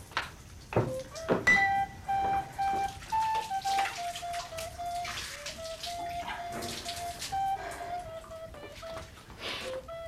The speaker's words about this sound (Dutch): Dan ga ik onderhand even mijn handen wassen.